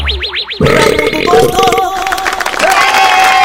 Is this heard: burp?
yes